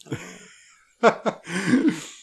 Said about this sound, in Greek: Συγγνώμη, με έχει πιάσει βήχα γιατί έχω πνιγεί, δεν έχω COVID.